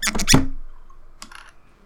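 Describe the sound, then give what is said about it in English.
A quick cluster of clattering knocks, then a pause and a brighter glassy clink that rings briefly, as drinks are poured and glasses are clinked together. No one speaks. “And with that, we will pour our drinks and clink our glasses, and then the rules come into effect, and the podcast also begins.”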